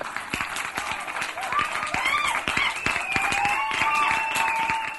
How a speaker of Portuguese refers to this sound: Vai lá, que o fliperama entrou para Machinima. Uma... Oh, que oh, palmas.